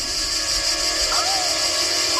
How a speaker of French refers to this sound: Il y a des cris d'oiseaux, tu entends